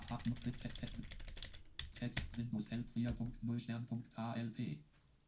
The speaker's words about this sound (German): Ich gehe mit der Pfeiltaste mal nach ganz oben.